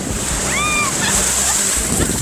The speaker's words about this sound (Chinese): 听听看，这是什么声音？没错，这就是大海。我现在所在的位置就是三亚的亚龙湾